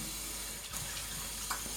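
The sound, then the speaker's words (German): Warm water runs steadily from a tap, a continuous rushing hiss with slight splashing variations, heard on its own without any voices. “Wichtig ist dabei eben auch warmes Wasser zu benutzen, das machst du vollkommen richtig, denn das entspannt die Muskulatur und die Haut und dann treten also die Haare ein bisschen leichter, äh, noch ein bisschen weiter noch aus der Haut raus.”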